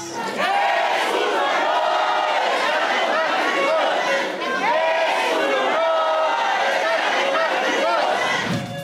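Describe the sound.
Hundreds of supporters of Omar García Harfush cheer his announcement that he will seek to become head of government of Mexico City: a loud, continuous roar of overlapping voices, with rising yells and calls that hold steady for the whole stretch before cutting off at the end.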